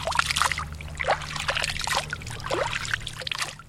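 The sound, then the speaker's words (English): Water from one of the two springs of Moenkopi, a Hopi village, trickles and splashes in uneven little bursts as a man scoops it out and lets it fall through his fingers, fairly soft, with a low steady hum underneath. “a Moenkopi farmer, scoops water out of one of his village's two springs and lets it fall through his fingers.”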